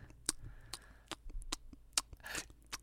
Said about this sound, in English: so much munching. Do you know that that what you're doing right there is actually one of the biggest contention points in my relationship?